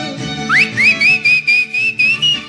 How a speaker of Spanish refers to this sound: Por mi forma de silbar, ¿verdad?